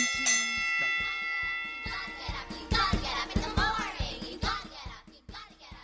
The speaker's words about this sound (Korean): 어, 종치고, 어, 그래. 야, 얘들아, 니들 들어가 이제.